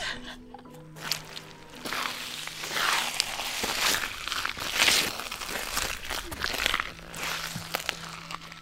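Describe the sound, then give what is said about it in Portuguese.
Wet, squelching footsteps on soggy, waterlogged ground beside a vereda wetland in the Cerrado, a steady series of soft sucking crunches, each step slightly uneven, with a faint low hum in the background and no talking. “A gente andou perto de uma vereda e parecia que a gente estava caminhando na beira do mar.”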